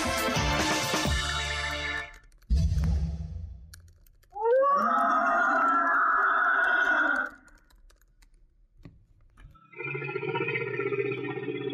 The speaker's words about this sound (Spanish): los sonidos de un animal eh, no son sonidos reales, desafortunadamente no pertenecen a un animal vivo, les vamos a explicar. Estamos escuchando eh, una hipótesis de cómo eh, se oiría un mamut.